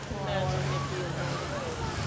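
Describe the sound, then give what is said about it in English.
Steady, rushing splash of an outdoor water feature fountain running continuously, a dense watery hiss filling the scene, with faint voices murmuring underneath. “Oh look, the water feature's back on.”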